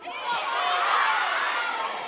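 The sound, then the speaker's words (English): An audience cheers and shouts together in a sustained, fairly loud roar of many voices, rising quickly and holding steady for a couple of seconds. “I keep thinking there must be something behind me because you're all like cheering all of a sudden.”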